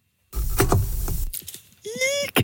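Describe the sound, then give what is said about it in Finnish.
A Dymo label printer cuts its printing tape: a loud, rough mechanical crunch, a few quick clicks, then a brief whirring whine that rises in pitch before stopping abruptly. No voices. “se ääni tulee tämmöisestä Dymo Tarra-tulostimesta, kun katkaistaan se nauha, se tulostusnauha siitä”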